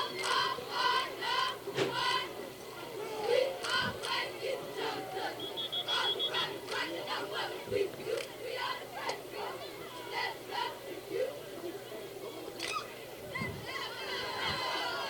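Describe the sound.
A large football stadium crowd, picked up by a crowd mic, roars and murmurs steadily, a dense wash of many overlapping voices with scattered shouts rising above the din, fairly loud throughout.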